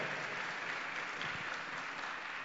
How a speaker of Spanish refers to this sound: Gloria al Señor, denle el aplauso a Cristo en esta noche.